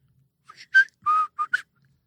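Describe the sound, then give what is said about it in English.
A short whistled tune of five quick notes, clear, rising and falling in a bouncy rhythm before stopping, with no talking over it. “That whistling that he does at the beginning of the.”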